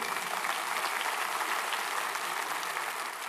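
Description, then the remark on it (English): Steady applause from a large audience, given for the Lord, fills the whole stretch, a dense, continuous patter of many hands clapping at even loudness, with no voices heard. “Give Lord a hand on that if you want to.”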